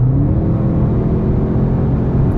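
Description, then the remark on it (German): A sports car engine in RS mode runs with a loud, deep, steady drone, its low tone edging slightly higher over a couple of seconds. No one speaks. “Und ich glaube, im RS-Mode, oder bilde ich mir das ein, dass er da noch etwas mehr zulässt an Sound”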